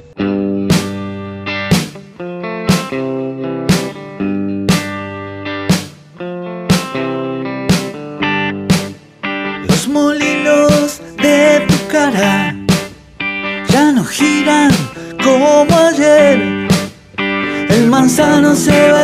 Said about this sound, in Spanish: Para despedirnos escucharemos …, tema extraído de su último disco.